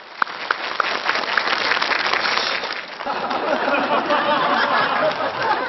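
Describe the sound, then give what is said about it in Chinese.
Sustained audience applause at a TV show welcoming a family's young couple onto the stage, a dense steady patter of many hands clapping for several seconds, with a few sharper claps at the start and faint crowd murmur mixed in. “话不多说，掌声有请我们这个家庭的小两口上台阐述他们的观点。”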